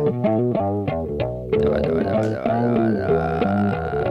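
A song's opening plays by accident on Camera Radio: a distorted, effect-heavy bass line of quick, steady notes, joined after a moment by a fuller, louder band texture that continues to the end.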